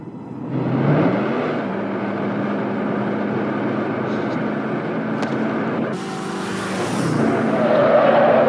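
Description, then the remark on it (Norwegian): The engine of a 1958 Plymouth Fury, the car Christine in John Carpenter's 1983 film Christine, roars steadily, a loud sustained rumble with a tonal whine, briefly dipping before revving louder again near the end. “og Jeg har glemt en liten detalj her, da, at Christine er navnet på bilen som da er sentral i handlinga.”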